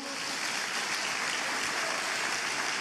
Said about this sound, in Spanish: Vamos, denle fuerte ese aplauso al Señor.